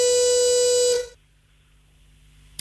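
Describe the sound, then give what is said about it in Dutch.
A single loud, buzzy horn blast signalling that a speaker's time is up rings out for about a second, rich in harsh overtones, then cuts off abruptly into near silence, with a faint click at the very end. “Ernst, dat was de toeter. Je tijd is”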